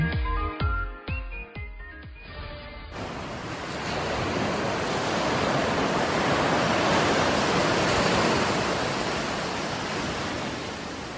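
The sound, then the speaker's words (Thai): A short burst of music opens, then ocean surf takes over at a white-sand beach in Thailand: a broad, steady wash of waves swelling and rolling onto the shore, fairly loud, easing slightly toward the end. “หาดทรายขาวน้ำทะเลใสเริ่มต้นได้ด้วยมือเรา ขอเชิญร่วมเป็นส่วนหนึ่งในการดูแลรักษาท้องทะเลไทย”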